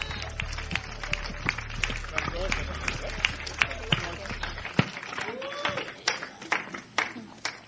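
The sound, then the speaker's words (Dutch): An audience applauds Jesus steadily, dense irregular claps with a murmur of voices beneath, while a low rumble in the background drops away partway through. “grootste applaus, Jezus.”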